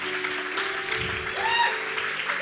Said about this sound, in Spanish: Ahora sí podemos darle un aplauso al Señor porque esperamos cosas.